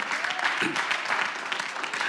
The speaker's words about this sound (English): Come on and clap your hands and tell the Lord, thank you.